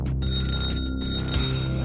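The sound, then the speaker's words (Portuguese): A telephone rings with a bright, metallic bell tone that holds steady for about two seconds, a continuous high trill over a low background hum, with no voices. “Você faz a ligação, o telefone toca”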